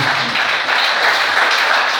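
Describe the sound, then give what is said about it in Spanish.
An audience applauds the Lord one morning with dense, steady clapping that stays loud and even throughout, a bright crackling wash with no pauses and no clear voice rising above it. “Denle un aplauso al Señor, por favor, en esta mañana.”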